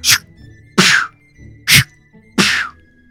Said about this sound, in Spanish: Se oyen disparos de escopeta en la lejanía.